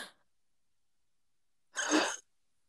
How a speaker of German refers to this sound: Boah, was war das für ein Geräusch? Gesundheit. danke.